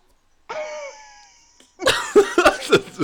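A strained, wheezy whistle is followed by a burst of four or five harsh, loud coughs in quick succession, as if someone is struggling to clear their throat.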